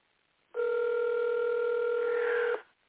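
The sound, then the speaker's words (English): A single two-second burst of an outgoing call's ringing tone, a steady electronic hum heard through a phone line, clear and fairly loud, then silence. No one speaks. “Answer the phone.”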